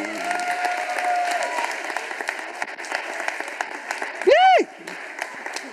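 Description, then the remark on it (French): Steady audience applause fills the whole stretch, a dense crackle of many hands clapping at once for a woman marking 30 years of Christian education, with a brief rising-and-falling whistle cutting through near the end. “Ah, on l'applaudit.”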